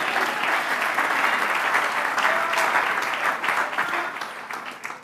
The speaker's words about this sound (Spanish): ¿Cuántos dan un aplauso, Señor?